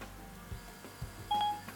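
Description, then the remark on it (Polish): A brief electronic phone dialing tone sounds near the end as a call is placed again from an iPhone, a clear steady beep lasting a fraction of a second, preceded by a few faint soft clicks against a quiet background with no talking. “Dzwonimy znowu.”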